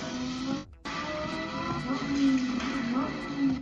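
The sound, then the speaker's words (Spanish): A loud combustion car engine roars and revs, its pitch rising and falling, with a brief cut near the start before the steady rumble resumes. “Cada vez me gustan más los motores que suenan más fuertes.”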